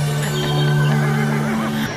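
A person imitates a horse's neigh, a sustained voiced whinny lasting nearly two seconds, loud, ending with a brief downward slide.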